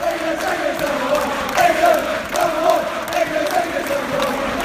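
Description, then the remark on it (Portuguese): A large crowd of travelling West Ham football fans chants together at Vicarage Road, Watford's stadium, singing "England's number one" for goalkeeper Joe Hart: a loud, steady sung drone with rising and falling phrases that carries on without a break for the whole stretch. “Aqui eles cantam para o Joe Hart, eles falam England's number one, né?”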